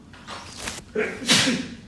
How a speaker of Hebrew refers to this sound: לבריאות.